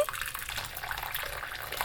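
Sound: hot water running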